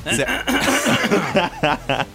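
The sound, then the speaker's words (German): Someone clears their throat in a run of short, voiced, rasping bursts, ending in a few separate gruff pulses. No words are spoken. “ich muss mich nochmal räuspern, vielleicht habt ihr das gehört.”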